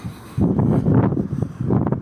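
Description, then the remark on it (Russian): Strong wind buffets the microphone in heavy, rumbling gusts, starting abruptly after a brief quiet moment and then roaring on with uneven surges and no clear voices. “Ой, это совсем ветрено.”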